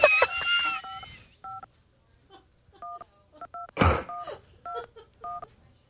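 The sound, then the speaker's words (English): A series of short two-tone phone dialing beeps in an uneven rhythm, preceded by a brief warbling electronic tone and interrupted once by a burst of noise, clear. The beeps come from an Android phone emulator placing a call. “Uh, apparently, I'm calling somebody.”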